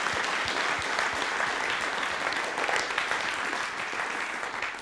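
Audience applause: a dense, steady wash of many hands clapping at once, sustained and fairly loud for several seconds with no voices on top.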